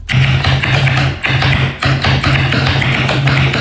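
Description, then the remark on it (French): Fast, loud typing on a keyboard modified to sound like a typewriter, with dense clacky keystrokes running almost continuously with two brief pauses and no voices. “Mais finalement, il en a fait une deuxième pour faire un truc plus sophistiqué et qu'on ait l'impression de taper à la machine.”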